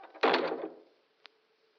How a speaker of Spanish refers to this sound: Debió derribar una silla o algo así, una silla pesada por el ruido.